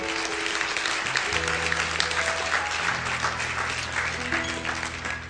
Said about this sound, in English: I'm glad you're clapping because that tells me a lot about the heart of this church.